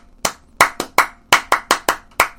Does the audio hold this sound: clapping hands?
yes